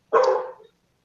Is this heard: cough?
no